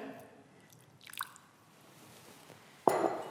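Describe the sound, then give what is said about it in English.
A little warm water sloshes and squelches around a container to rinse out sticky treacle: a soft wet rustle early on, then a louder splash near the end, with no talking. “get the last bit of treacle out, I'm going to use a little warm water”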